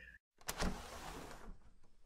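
The window opposite the door of a bare, unfurnished room is wrenched open with a firm yank, a sudden scraping slide that swells quickly and rumbles on for about a second before fading, after a brief silence.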